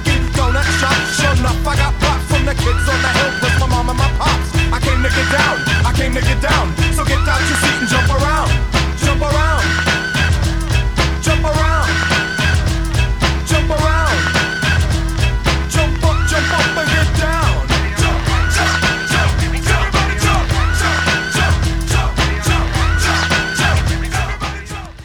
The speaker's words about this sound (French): ce petit son qu'on entend, c'est en fait un très court extrait de saxophone qui ressemble à un cri